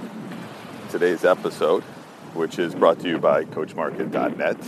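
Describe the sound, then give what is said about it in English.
A man speaks steadily while walking on a beach, with a soft, continuous wash of ocean waves hissing faintly in the background throughout. “so if you hear a little wind, if you hear uh, the waves in the background, it's because I'm walking the beach.”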